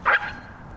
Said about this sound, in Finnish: Iso ja pieni koira. Jos on narttu, niin ei sit pitäisi olla mitään ongelma. Mitä tapahtuu? Aha, aha.